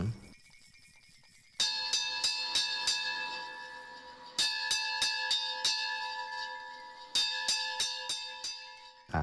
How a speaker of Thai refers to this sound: ระฆังนะครับ เป็นระฆังจากที่ว่าการอำเภอที่จะต้องสั่นนะครับทุกๆ ครั้งที่มันมีการครบชั่วโมงนะครับ